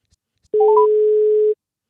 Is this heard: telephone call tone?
yes